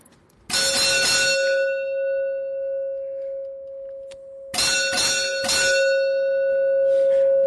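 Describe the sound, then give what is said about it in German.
A bright electronic bell tone rings out, sustaining a steady pitch, then is struck again with a couple of quick repeated chimes partway through. No voices, just the ringing lure call of a toy, set off by pressing and holding a black button, while three colours are revealed. “Zeitgleich zum Lockruf offenbaren sich nun drei Farben.”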